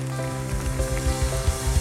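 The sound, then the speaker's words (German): A crowd applauds for God, with dense, steady clapping that fills the whole stretch, over sustained musical tones and soft low thumps. “Lass uns Gott für das einen fetten Applaus geben, Ein Gott, der über über Zeit und Raum in unserem Leben steht.”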